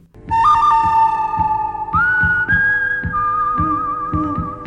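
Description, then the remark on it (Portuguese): A long, shrill human whistle holds steady notes, stepping up in pitch a couple of times, over a steady pulsing low thump that keeps a slow rhythm throughout. “Nunca assobie de volta para um assobio desconhecido, amigo.”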